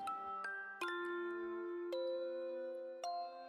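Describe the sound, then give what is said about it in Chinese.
A bright ding-dong chime introducing a science-facts segment: five bell-like notes struck at uneven intervals, each ringing on with a clear, sustained tone that overlaps the next. No voices are heard. “叮咚，科学小常识。”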